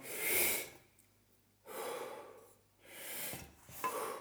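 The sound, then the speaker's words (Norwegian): Three slow, deep breaths follow one another as a breathing exercise, each drawn fully in and let out naturally, a long airy rush in and out with short pauses between, fairly quiet, with no talking. “Sånn så begynner jeg begynner å forberede meg litt, så begynner jeg med denne pustinga.”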